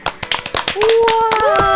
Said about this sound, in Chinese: 掌声鼓励一下！